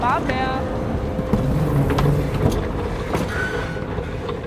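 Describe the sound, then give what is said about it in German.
A steady low mechanical rumble and hum from an escalator descending to platform 2 of a train station, with brief whines, faint squeals and indistinct voices echoing in the background. “Wir stehen auf der Rolltreppe, die runter zum Gleis 2 führt.”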